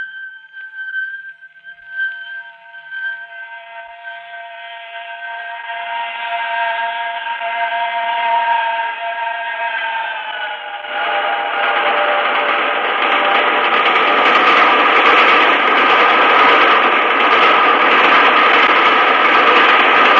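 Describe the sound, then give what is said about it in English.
A train's steam whistle shrieks in sustained, wavering tones, then a loud, roaring rush of the train smashing past into a dark tunnel swells in and thunders on to the end, with no voices. “had smashed by like a wounded monster screaming in pain and disappeared into the dark tunnel.”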